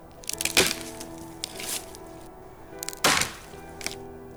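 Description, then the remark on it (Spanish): Wood cracks and snaps in nearby trees: two loud, sharp breaks about two and a half seconds apart, with smaller crackles and creaks scattered around them against a quiet background. “Finalmente estaba comenzando a dormirme, y lo habría hecho de no ser porque escuché un ruido y el crujir de los árboles de los bosques cercanos.”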